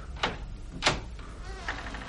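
A heavy dungeon door creaks open with two sharp, squeaky groans followed by a softer, wavering creak, with no voices present.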